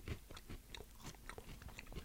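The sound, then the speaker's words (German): Someone chews a crunchy snack, with a steady run of crisp, crackling bites and crunches coming every quarter second or so. It is fairly quiet, and no one speaks. “Mit dem Kauen, das hört man auch, ne?”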